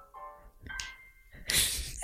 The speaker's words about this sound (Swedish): Den är så funky din mm. Eh, mobilsignal. Jag ska höra ringsignalen. Världens disco. Härligt. Just det. Det är polyfoniska.